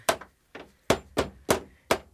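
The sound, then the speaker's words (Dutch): Six sharp hammer blows knocking the pin out of a door hinge to get a door open, struck in a fairly steady rhythm with short ringing tails; the second strike is noticeably softer. No one speaks. “Je moet proberen de pen uit de scharnier te slaan.”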